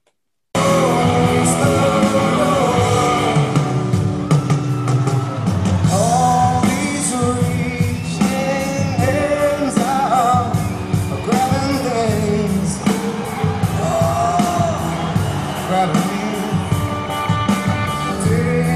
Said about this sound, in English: He forgets the words, and the entire audience is singing along with him. They audibly fill in the word. Here we go.